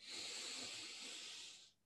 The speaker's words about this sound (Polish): Puszczam sobie, ustalam sobie na 7 minut w aplikacji Insight Timer, ustawiam sobie właśnie czas, muzyczkę, żeby mi odliczała i przez 7 minut skupiam uwagę na oddechu i powtarzam sobie, robię wdech.